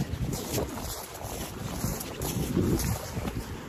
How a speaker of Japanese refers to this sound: 川の音聞こえるかな今日は静かな朝ですね。